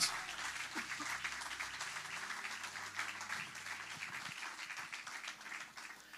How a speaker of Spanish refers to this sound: Denle un aplauso fuerte al Rey de Reyes.